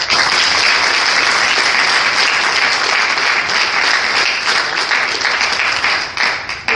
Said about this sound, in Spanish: Un aplauso para las cigarreras.